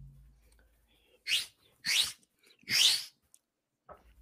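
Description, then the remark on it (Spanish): Three breathy, airy whistles in quick succession, each a short swooping tone wrapped in hiss, like a wolf whistle or catcall, heard up close with quiet pauses between them. “No, no, es que ese es el silbido pe, que le hicieron a.”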